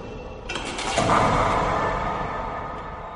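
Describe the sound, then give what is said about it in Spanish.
A heavy door swings open with a loud, grinding creak that begins abruptly and stretches out into a long, rumbling scrape before slowly fading, with no voices present. “El ángel, con dos llaves, abrió la gran puerta.”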